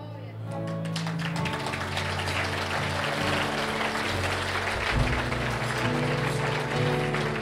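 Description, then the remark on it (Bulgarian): An audience breaks into steady, dense applause that swells within the first second and holds at an even, fairly loud level for about seven seconds, with a low sustained tone underneath. “Надявам се, че осъзнавате, че не ръкопляскате на моята мъдрост, а ръкопляскате на Исус Христос, който каза, по-блаженно е да даваш.”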